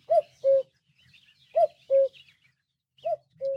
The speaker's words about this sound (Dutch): De mooie vogelgeluiden die je notenkraaks hoort, die komen van de app Bird Sounds Europe. Hek Meuse, die ook voor ons vogelmagazine schrijft over vogelgeluiden, heeft veel van die geluiden voor de app opgenomen.